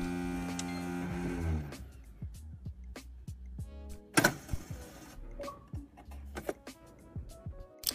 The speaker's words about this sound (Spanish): Este tenemos que poner audio. Atentos, escuchad. habéis escuchado? ¿Lo estáis escuchando? Esto es lo que pasa cuando metes un disco en, las, en, la serie X de esta persona.